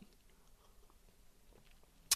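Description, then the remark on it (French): Quiet mouth sounds of someone sipping a fizzy Coke and swallowing, with soft wet gulps, then a single sharp click at the very end. “Je vais quand même faire la petite pause. J'avale mon coca.”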